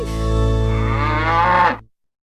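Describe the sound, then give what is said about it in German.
A single long, loud cow moo with a deep, steady low drone and rich harmonics, lasting close to two seconds before cutting off abruptly. No talking underneath. “Ah, meine, Ablos meine absolute Lieblingskuh.”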